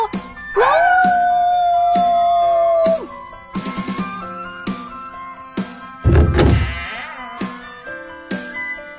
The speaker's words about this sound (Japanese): 結婚パーティーの会場はここだところが扉が閉まっている僕は思いっきり遠吠えをしたわわ